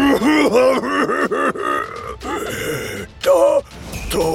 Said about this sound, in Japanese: するとキッチンの外から急に激しく咳き込むような声が聞こえてきましたラブール警部たちが窓の外を見るとそこにはなんと窓の下に隠れて苦しそうな顔で喉を押さえている牛の姿がありました